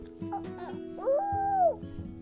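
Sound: child imitating a chicken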